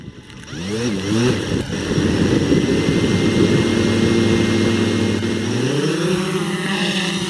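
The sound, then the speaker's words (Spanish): A small white drone the size of a vinyl record buzzes steadily over a wasteland in the municipality of García, less than an hour from Monterrey, controlled by women searching for the disappeared. Its stacked whining harmonics slide up and down in pitch as the rotors speed up and slow, loud and continuous. “Ese zumbido es el de un dron blanco del tamaño de un disco de acetato, que vuela sobre un despoblado del municipio de García, a menos de una hora de la norteña ciudad de Monterrey.”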